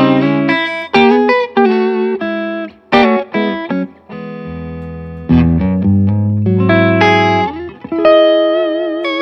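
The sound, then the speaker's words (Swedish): A distorted electric guitar plays a string of quick notes and chords with a touch of reverb, loud, with brief pauses between phrases and no talking. “Eh, det här är bara stärk. Ja. Med lite reverb. Du fick lite trivselreverb.”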